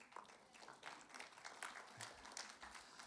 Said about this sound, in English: I did pretty good. I got an applause for my very first marriage lesson I ever gave. That's pretty good.